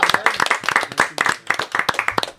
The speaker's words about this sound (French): je vous demande un tonnerre d'applaudissements pour euh, le président de mon cœur,